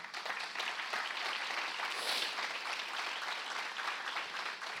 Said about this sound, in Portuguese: Assim nós oramos em nome de Jesus. Amém, amém. Dê um aplauso ao Senhor.